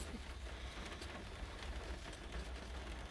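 Rain falls as a steady, soft hiss with faint scattered patters, over a low continuous rumble. No one speaks.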